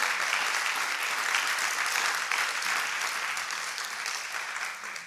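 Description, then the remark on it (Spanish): A church audience applauds the Lord loudly and steadily, a dense wash of many hands clapping that fills the space for several seconds, tapering only slightly toward the end. “Si se lo va a dar, déselo fuerte.”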